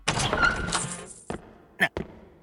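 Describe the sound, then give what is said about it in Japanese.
A heavy prison cell door grinds open with a second-long metallic scrape as someone goes inside, followed by a few sharp clanks as it settles, with no voices present. “牢屋の扉を開けて中に入りました”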